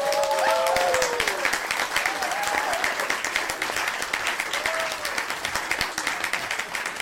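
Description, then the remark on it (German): Steady applause from a crowd, dense rapid clapping that holds for about seven seconds, with a few short whistles or cheers rising over it early on. “Da absolut wäre auch ein kleiner imaginärer Applaus angebracht an dieser Stelle.”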